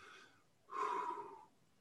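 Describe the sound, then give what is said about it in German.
A slow, deep breath drawn in as an arm is raised, then a louder, longer exhale pushed out as the arm is lowered, clear with no talking over it. “Armheben so ist Einatmen und dann”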